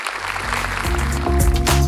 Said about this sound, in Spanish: de un aplauso fuerte ustedes también. Tremendos campeones.